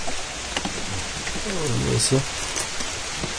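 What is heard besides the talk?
heavy rain falling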